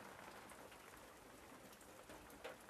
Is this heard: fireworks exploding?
no